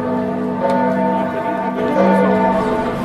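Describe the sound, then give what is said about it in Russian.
Church bells ring steadily and loudly in Florence, Italy, their overlapping tones hanging in the air, with fresh strikes adding to the sustained, reverberant hum throughout. “Вот как раз колокола заработали.”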